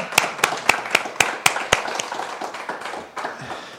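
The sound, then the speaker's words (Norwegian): Audience applause welcoming a local businessman: a few sharp, evenly spaced claps ring out first, then blend into a steady wash of scattered clapping from many hands that slowly thins toward the end. “Nei, gi ham en liten applaus, den òg.”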